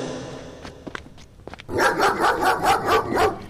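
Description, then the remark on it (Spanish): A few light taps and thumps, then a dog breaks into loud, rapid barking, about half a dozen harsh barks in quick succession with no one talking. “Gestos ya recibió un expediente sancionador por tenencia de animales potencialmente peligrosos.”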